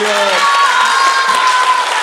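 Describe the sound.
An audience applauds steadily for about two seconds, a dense, even wash of clapping with some voices and tonal sounds mixed in underneath.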